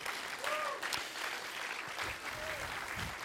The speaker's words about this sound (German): Einfach mal einen riesen herzlichen Dankesapplaus geben. Ihr macht einen riesen Job. Danke viel, viel, viel mal.